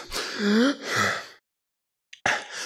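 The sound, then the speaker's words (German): A person sharply gasps in a quick, audible breath, sandwiched between short voiced sounds and a brief pause. Clear, a deliberate imitation of catching breath in the middle of a sentence where there is no pause for breath. “Und dann mittendrin merkst du plötzlich, wie du mitten im Satz, wo keine Atempause ist”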